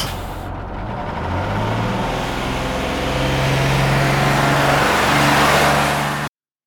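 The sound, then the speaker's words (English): A heavy bus engine revs up loudly, its low droning pitch climbing steadily as the vehicle pulls away, with a brief hiss of air near the start and no voices. “It's a bus. Rolling. I can get on board.”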